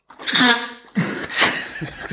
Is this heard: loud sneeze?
yes